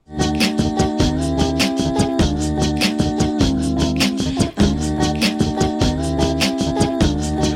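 Loud, steady looped music from a loop box, made with human beatbox, with a repeating bass and beat pattern cycling every couple of seconds, layered with bright melodic tones, playing alone without any voices.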